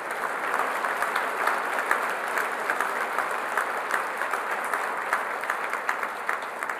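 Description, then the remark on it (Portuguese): An audience applauds steadily, a dense patter of many hands clapping at an even level throughout, with no voices standing out. “Eu acho que esse texto merece uma salva de palmas, pelo menos até aqui.”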